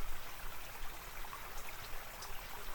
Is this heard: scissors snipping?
no